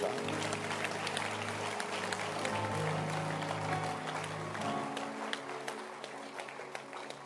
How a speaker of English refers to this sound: can you clap your hands for this beautiful service?